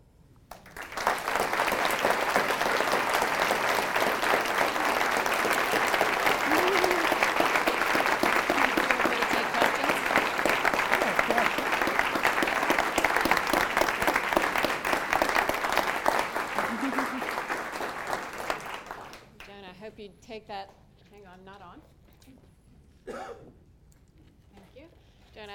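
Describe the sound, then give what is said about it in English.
Loud, sustained audience applause fills about eighteen seconds with dense, steady clapping, then cuts off abruptly; afterward a voice speaks briefly with a few scattered sounds. “you hear that applause, is our gratitude for the gift you've just given to all of us.”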